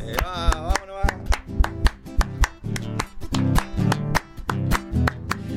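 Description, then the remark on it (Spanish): Steady rhythmic hand clapping keeps time with a lively chacarera folk tune, sharp claps landing in a regular pattern over guitar and melody. “Ah, ya empezamos a hacer palmas de entrada, vamos nomás.”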